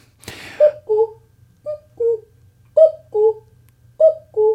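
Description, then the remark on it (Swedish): Someone imitates a cuckoo, whistling or hooting four evenly spaced two-note calls, each falling from a higher to a lower pitch, after a brief click at the start, over a faint low hum. “ett strålande exempel på en gök.”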